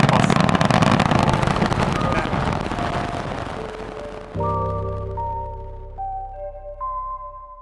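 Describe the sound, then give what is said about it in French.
A loud, continuous roar at liftoff from a rocket's four RS-25 engines, old space shuttle-era engines, and its solid rocket boosters, dense and rumbling, gradually thinning out before a short melodic jingle of rising, stepped tones takes over. “Elle a allumé ses quatre moteurs euh, RS-25, des, vieux moteurs qui dataient de l'époque de la navette spatiale, et ses boosters à poudre.”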